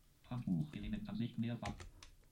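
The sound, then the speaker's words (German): A person speaks while the Return key on a computer keyboard is pressed with a sharp click near the end to open a folder, followed by another faint tap. “Auch da gehen wir mit Return einmal rein.”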